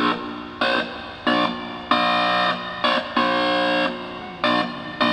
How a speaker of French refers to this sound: Il y a des bandes horizontales sur son t-shirt, noir et blanche, Et en s'approchant ou en se reculant d'un capteur électronique, eh ben, il obtient des notes différentes.